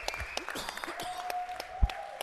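An audience claps in a loose, uneven burst of sharp hand claps, with a thin steady tone humming through the middle and no voices.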